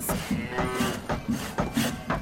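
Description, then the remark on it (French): Cows mooing in a dense, overlapping chorus, with repeated low lowing calls about every half second, fairly loud, no talking; cows brought in by settlers at Stadaconé. “on rase la forêt, on installe des vaches un peu partout, des paysans qui cultivent la terre”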